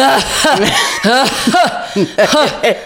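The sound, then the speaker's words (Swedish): A person mimics someone coughing beside them during a spa massage, a quick series of short, voiced hacking bursts, fairly loud, bunched in irregular clusters over a few seconds with no other talking. “Vi säger att jag skulle ligga och få massage på ett spa och så hör man någon bredvid som hostar.”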